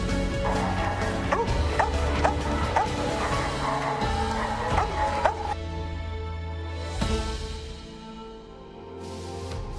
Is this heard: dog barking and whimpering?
yes